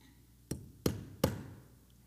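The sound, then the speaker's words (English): A hammer strikes a screw into wood three times in quick succession, each blow a sharp, solid knock with a short ringing decay, fairly loud with no talking. “In the same way, if I take a screw and I take a hammer”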